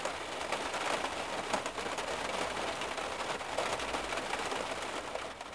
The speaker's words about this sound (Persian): اما حالا کارکنان مخازن آب هم کشور رو ترک کردن و ما مجبوریم آب بارون جمع کنیم اون هم با تشت ها و بشکه هایی که توی حیات میذاریم